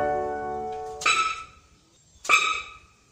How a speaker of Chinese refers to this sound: 哦，乖乖，这个叫声可能你不太熟悉，这是台湾水鹿的叫声。台湾水鹿大多是在清晨和黄昏的时候会出来活动。而水鹿住在海拔一千公尺以上的原始森林。